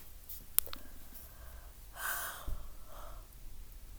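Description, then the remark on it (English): A breathy yawn swells and fades midway through, a long airy inhale carrying a faint vocal tone, with a soft click and quiet breathing around it and no speech. “A lot of yawning is going on here.”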